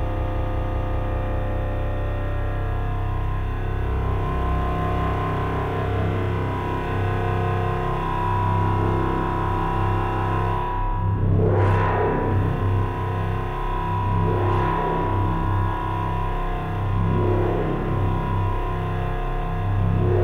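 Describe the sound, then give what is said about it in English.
A dense, buzzing synthesizer tone from an even VCO plays continuously. Diode chaos outputs modulate its structure, fold and edge, and a sine wave from the angle grinder amplitude-modulates it, so its harsh harmonics wobble steadily, with occasional rising sweeps cutting through; no voices, constant loudness throughout. “And then we are amplitude modulating that sound with a sine wave out from the angle grinder.”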